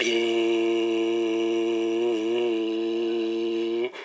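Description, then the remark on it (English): A voice imitates a motorboat engine on Lake Chickamauga, Tennessee, with a steady, buzzing hum, loud for about four seconds with a slight wobble midway before cutting off abruptly. “But when I'm wanting to be peaceful, what's that boat disturbing?”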